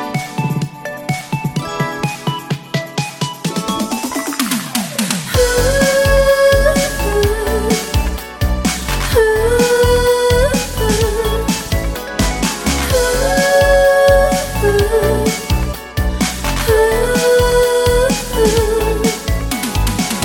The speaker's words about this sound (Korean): 레트로 댄스 곡으로 들려드리겠습니다.